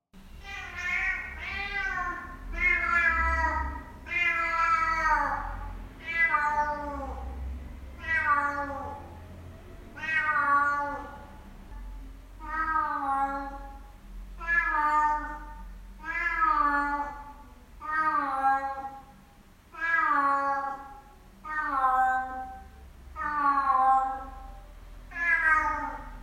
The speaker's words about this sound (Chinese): 听完是不是觉得有点可爱，然后有点吵呢？没想到听到这一只猫还活着的声音呢，是我这时候最大的幸福。虽然觉得有点吵啦，毕竟它就是一只老猫嘛，想要有人陪。